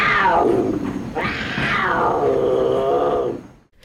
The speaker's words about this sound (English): You know, last trip, a mountain lion showed up right over that tunnel. There's one now, so you better all be real quiet.